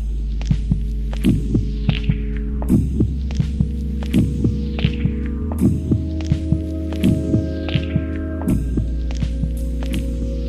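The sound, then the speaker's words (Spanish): A steady heartbeat thumps in paired beats, about one per second, over a deep droning hum, muffled and close like listening from inside the body. No voices. “¿Será por eso que los latidos del corazón son tan importantes para los poetas?”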